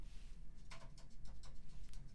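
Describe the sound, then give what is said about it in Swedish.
Faint, irregular light taps and scuffs of a magpie walking outside the window, a quick series of soft patters over a low steady background rumble, with no voices. “Jag har en skata som går utanför fönstret.”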